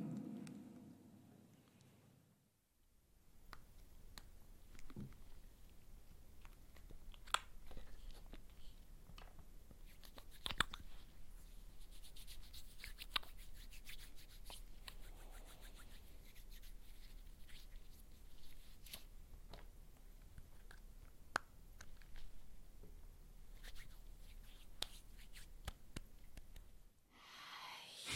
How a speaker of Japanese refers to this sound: いい音でしたね。でしたね。何ですか？ハンドジェルです。今大事なハンドジェル。大事ですよね。